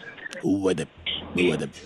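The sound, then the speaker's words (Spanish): A person imitates a toad with two throaty, vibrating croaks, each about half a second long, fairly loud, separated by a brief pause. “¿Cómo parece le hace? sapo. Me cae que sí parece.”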